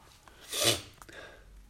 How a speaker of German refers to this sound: Nase hochziehen ist aber okay im Podcast, mach keine Sorgen.